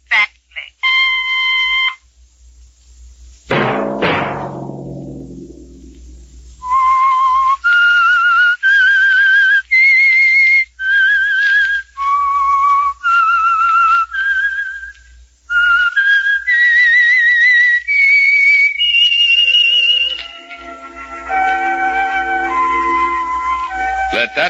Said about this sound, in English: whistle be your signal for the Signal Oil program, The Whistler, each Sunday night at this same time.